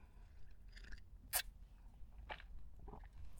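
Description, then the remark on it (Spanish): A quick sip of coffee: a short sharp slurp, then a couple of soft swallowing sounds over a low background hum, with no talking. “trago de café y para que se aguanten el asco”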